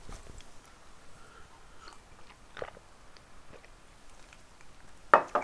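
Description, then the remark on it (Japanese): Someone eating Peyang Goku Gekikara Tantan, an extremely spicy instant noodle, with soft wet chewing and scattered faint clicks over a low hiss, then a louder burst of slurping or crunching at the end. No one speaks. “ペヤング獄激辛坦々を食べつついろんな話”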